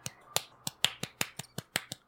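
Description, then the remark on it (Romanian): A rapid series of about ten crisp finger snaps, fairly loud, in a steady quick rhythm with no talking. “Am făcut cu din deget, dacă se aude da, altceva da, după procesarea asta e.”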